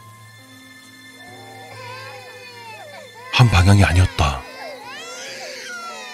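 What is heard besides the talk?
baby crying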